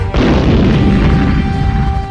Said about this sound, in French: N'ouvre pas ce cadeau, c'est une bombe dit la fée Clochette. Mais trop tard, la bombe explosa.